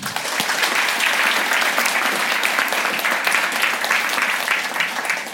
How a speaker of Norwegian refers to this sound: gi en varm applaus til Sten Inge Jørgensen